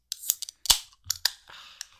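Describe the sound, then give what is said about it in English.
A can of pink, raspberry-flavoured drink being cracked open: a few sharp metallic clicks, one loud snapping pop, then a short fizzing hiss and a final click, with no talking. “Um, let's crack them open, eh?”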